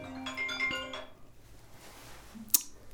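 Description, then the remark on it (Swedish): A mobile phone with its sound left on plays a short, bright ringtone melody of quick electronic notes for about a second, then stops; the call is from the owner's daughter. Near-silence follows, broken by one sharp click. “jag hade den på ljudet”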